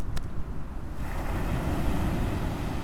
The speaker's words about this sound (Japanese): ただいま湘南から波の音をお届けしております